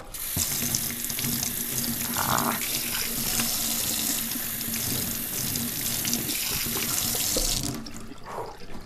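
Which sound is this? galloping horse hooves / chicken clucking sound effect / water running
water running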